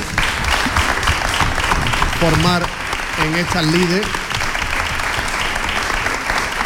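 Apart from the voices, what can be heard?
audience applause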